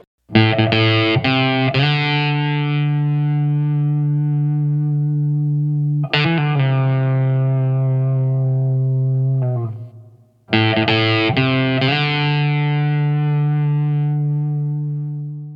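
Heavily distorted electric guitar chords ring out loud, struck in three long sustained bursts that slowly fade between strikes, in a rock style with no voices.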